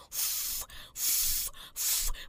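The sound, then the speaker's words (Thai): A king cobra hisses three times in a steady rhythm, each long, breathy burst loud, with short pauses between them and no voices. “เจ้างูจงอางไงนะคะ เป็นงูพิษที่มีขนาดใหญ่ที่สุดในโลกเลย หัวของมันกลมทู่ใหญ่ ที่สำคัญมันแผ่แม่เบี้ยได้ด้วยนะแต่มันแตกต่างจากงูเห่านะคะน้องๆ ค่ะ เพราะที่หัวของมันไม่มีดอกจันเหมือนเจ้างูเห่าแต่มันทำเสียงขู่ คล้ายงูเห่าได้ว่า”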